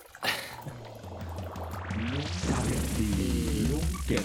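Coffee pours steadily into a cup, the pitch rising as the cup fills over a few seconds, clear with no talking.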